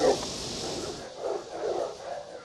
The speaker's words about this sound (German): Und man hört ja auch schon welche, aber ich glaube, das sind ganz große Hunde. Und so richtig nah rangehen möchte ich eigentlich auch nicht.